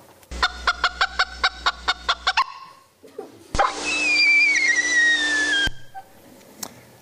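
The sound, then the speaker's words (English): Two different bird predator alarm calls, no talking: first a rapid, evenly paced run of about ten sharp, harmonic clucks, then a pause and a loud, harsh two-second screech carrying a slowly falling whistle. “maybe because they only have two different uh, predator alarm calls rather than three.”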